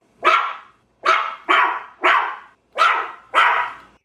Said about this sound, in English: Be quiet, dog!